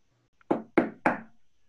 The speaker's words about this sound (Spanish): En eso, tocaron a la puerta otra vez. Era la gallina.